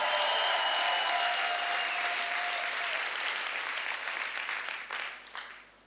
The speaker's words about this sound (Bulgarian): О, ако ръкопляскаш, ръкопляскай, че наистина вярваш.